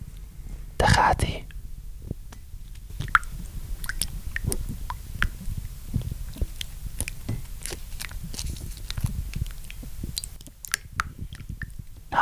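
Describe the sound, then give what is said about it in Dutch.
A packet of vanilla roast tea being torn open: a sharp papery rip early on, followed by scattered crinkles and small crackling ticks, with soft whispery voice sounds underneath. “Ik zal het zakje even openmaken.”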